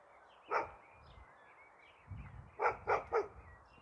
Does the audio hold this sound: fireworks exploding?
no